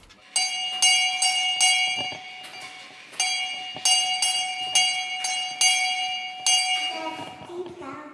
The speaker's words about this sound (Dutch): eerste geluid is mijn oude deurbel. Dat is een bel waar dat je moet aan trekken, maar die hoor ik niet goed meer